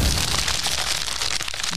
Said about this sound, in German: Und heute raschelt Adam in unserer Snack-Wundertüte.